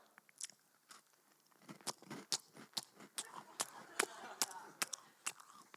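Crunching and chewing of crisp biscuits, a rapid series of sharp, irregular crackles growing busier and louder over several seconds, with no talking.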